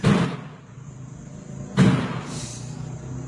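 A door in a morgue bangs shut with a heavy thud, then slams again about two seconds later, each impact followed by a short echoing rumble, no one speaking.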